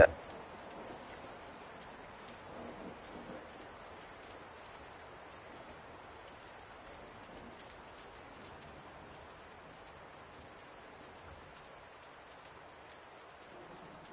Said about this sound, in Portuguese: Gostosinho, né? o som da chuva.